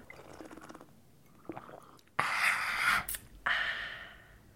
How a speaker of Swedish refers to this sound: Jag ska bara ta en klunk kaffe. Jag tar den jag också.